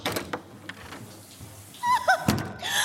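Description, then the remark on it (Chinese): A door is opened, this time using the left hand, with a soft thunk and a brief rattle of the handle, followed by faint squeaky scraping sounds and rustling, with no one speaking. “一定是我开门的姿势不对，刚刚是用右手开门，那换左手”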